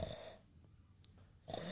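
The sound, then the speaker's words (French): Two loud, rasping snores, one at the start and one at the end, with a short quiet breath between them, performed by a human voice imitating snoring. “Alors, l'ours se mit à ronfler, et à ronfler, et à ronfler.”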